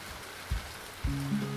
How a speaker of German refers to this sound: Da waren wir auf dem Denali Campingplatz. Der sintflutartige Regen prasselte nieder und der Himmel war so dunkel, dass es zum ersten Mal, seit wir dort waren, tatsächlich wie Nacht schien.